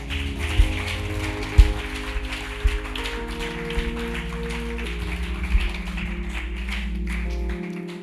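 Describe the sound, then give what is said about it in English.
A crowd claps steadily for God after a prayer, a dense, rain-like patter, with sustained keyboard chords and a low bass line playing underneath, holding at an even level throughout. “You want to give God the biggest clap?”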